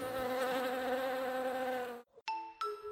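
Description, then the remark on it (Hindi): A steady, loud buzzing of honey bee wings, flapping about 11,000 times a minute, drones for about two seconds, then cuts off, followed by two bright chime-like tones ringing out in quick succession. “ये अपने wings one minute में अबाउट 11,000 टाइम्स फ्लैप करती हैं जिससे प्रोड्यूस होता है इनका फेमस बजिंग साउंड”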